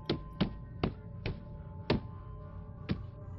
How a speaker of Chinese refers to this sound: 等他们睁开眼时，一个身材高大的黑衣人已经站到了车旁，并用手电。敲了敲窗玻璃，示意他们摇下车窗。